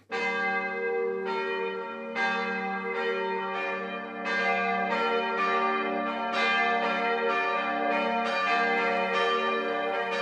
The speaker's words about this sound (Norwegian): Kirkeklokkene landet rundt ringer for begravelser, bryllup og dåp.